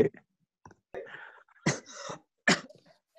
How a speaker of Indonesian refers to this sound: batuk?